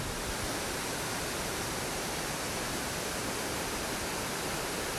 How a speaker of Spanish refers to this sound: Esta cascada emana la energía de la fluidez, que siempre corre. Fluye. Viaja.